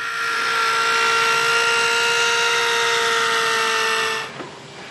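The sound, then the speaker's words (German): Electric scissors, guided precisely along a drawn outline by an upholstery apprentice, cut upholstery material for the side piece of a cushion, making a steady, loud whirring buzz with a strong harmonic whine that holds for about four seconds, then cuts off abruptly into quiet hiss. “Diana führt die elektrische Schere genau nach Vorzeichnung, präzise und entschieden.”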